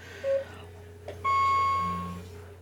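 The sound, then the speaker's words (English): Several household clocks go off together at about 7:58: a short beep, then longer steady electronic tones overlapping one another, fairly clear over a low background hum, with no talking. “All right, you can hear several of my clocks going off.”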